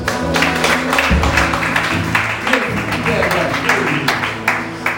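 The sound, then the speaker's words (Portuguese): An audience in a church applauds after a prayer, a dense, steady wash of many hands clapping for several seconds, with low sustained tones and murmuring voices underneath. “Aplausos Jesus.”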